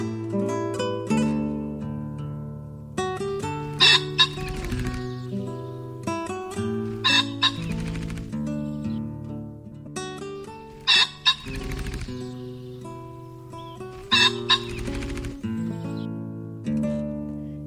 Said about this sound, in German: Das war der Fasan.